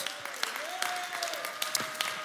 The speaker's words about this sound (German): Wir feiern alle Leute in Ansbach, in Erlangen, alle Leute, die zu Hause sind und momentan einfach online mit dabei sind. Hey, wie wär's nochmal, wenn wir uns auch nochmal gegenseitig nochmal einen riesen Applaus geben?